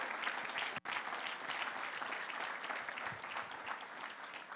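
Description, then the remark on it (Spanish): A large group claps together in sustained, dense applause for the Lord, a steady wash of many hands with only a split-second gap near the start. “Dale un fuerte aplauso al Señor.”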